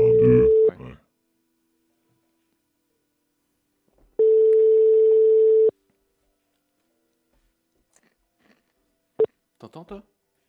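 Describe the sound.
A steady electronic phone ringback tone sounds in two long beeps separated by a few seconds of silence, fairly loud and alone, followed by a brief bit of talking near the end.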